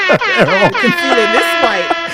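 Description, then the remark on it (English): A loud, blaring air horn sound effect honks in a rapid series of brassy blasts, its pitch wobbling up and down for about two seconds. “Let me hear the air white, horn for that.”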